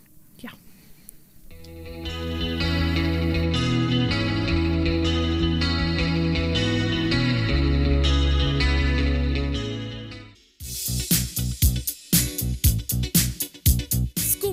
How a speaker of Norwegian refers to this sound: Um, but now we're going to listen to another song